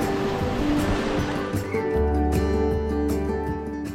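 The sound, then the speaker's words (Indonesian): Big ocean waves crash and rush loudly and continuously at the beach of Tanjung Binarean, with a steady low droning hum running underneath and no voices. “Ah, ombaknya gede banget, tapi untung sekarang kita sudah sampai di Tanjung Binarean dengan selamat.”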